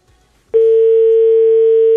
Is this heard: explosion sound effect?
no